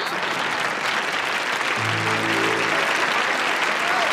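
Enthusiastic applause from a large crowd of students welcoming the famous writer Liu Yong to give a speech, a dense, steady wash of clapping that fills the whole four seconds, with a brief low droning tone rising underneath midway through.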